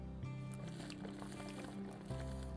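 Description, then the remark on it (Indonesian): Quiet handling of a bottle, with soft liquid sloshing and a gurgle as a thirsty person takes a sip, over a low steady hum and no talking. “botol gue pegangin doang agak diminum”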